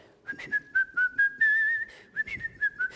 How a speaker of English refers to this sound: because you have a song in your heart, you know, better than even the whistle of the, uh, the dwarfs.